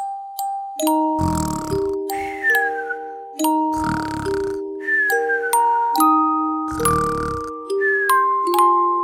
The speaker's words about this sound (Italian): In realtà non russo, ma era funzionale alla narrazione.